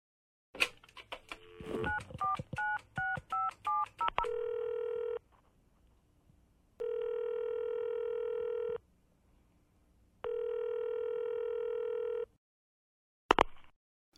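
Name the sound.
telephone dialing tones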